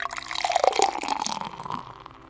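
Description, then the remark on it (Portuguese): Water pours steadily into a glass during a spiritual prayer for a couple of seconds, splashing and gurgling, with a faintly rising tone as it fills before trailing off. “E neste exato momento, irmanados em pensamento com os amigos espirituais que nos acolhem e envolvem, recebamos nesse copo d'água”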